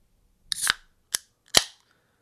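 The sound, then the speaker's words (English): A cold beer can cracked open: a sharp metallic snap with a brief fizzy hiss, then two more quick clicks a moment apart, with nothing else around them. “that's me cracking a nice cold beer because it's not day, it's not morning when I record this.”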